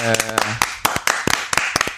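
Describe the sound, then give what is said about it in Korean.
A short round of applause: roughly a dozen sharp, slightly irregular hand claps over two seconds, with a brief voiced sound from someone at the very start. “얘기가 길어졌네요. 박수.”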